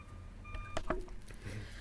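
A single faint electronic beep from a reversing truck, followed by a couple of sharp knocks against a low background rumble; no one speaks.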